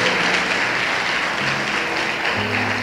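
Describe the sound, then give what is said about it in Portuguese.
An audience claps steadily and loudly to applaud the Lord Jesus, a dense wash of applause with no pauses, while a faint low sustained tone hums underneath. “Aplaude. Aplaude mais forte.”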